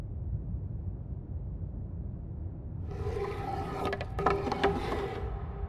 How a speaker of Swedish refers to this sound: Jag blundar och känner hur träbiten börjar röra sig under mitt finger igen.